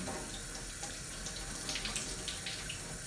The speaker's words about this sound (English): Now I must wash my hands. This dough is very wet.